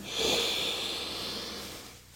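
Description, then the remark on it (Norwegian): One long, deep breath drawn in through the nose during a guided breathing exercise, an airy rushing hiss that lasts about two seconds before tapering off. Fairly quiet, with no talking. “Så la oss bare puste inn inn.”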